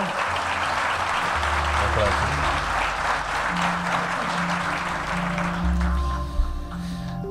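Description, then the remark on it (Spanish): An audience claps and applauds steadily, a dense, crackling wash of many hands that holds at an even level for about seven seconds, with low humming tones beneath. “¡Un aplauso!”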